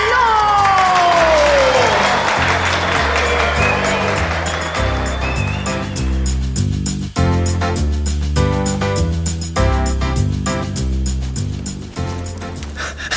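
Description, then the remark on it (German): An audience applauds and cheers for clowns at the grand finale of their juggling performance, with whistles over loud, rhythmic music with a steady bass beat. The crowd noise is strongest in the first few seconds, then fades beneath the music. “Herzlichen Dank und einen extra großen Applaus an unsere Clowns.”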